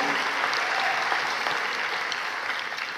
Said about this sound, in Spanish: Si usted lo quiere, déle un fuerte aplauso a Jesús.